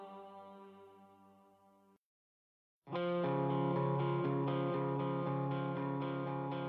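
The rock theme song of the animated film Rock Dog (摇滚藏獒): a softer sustained passage fades out, a short silence follows, then a loud, distorted full-band section bursts in and drives on steadily.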